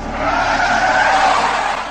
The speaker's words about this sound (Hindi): अभी कुछ ही दूर गए होंगे कि इस बार लकी ने ब्रेक मारी